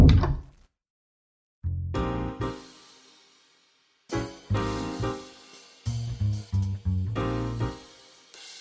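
A door-opening sound effect: a sequence of heavy clunks and creaks in several separate bursts with short pauses between, fairly loud, with no voices.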